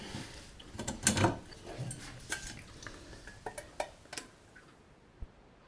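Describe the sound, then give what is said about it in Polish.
Liquid for jelly desserts is poured from a tilted pot into two dishes, with a soft splashing wash broken by several sharp clinks and taps of metal against crockery, fading out toward the end. “Nalewam troszeczkę więcej do tamtego. Resztkę dolewam do drugiego.”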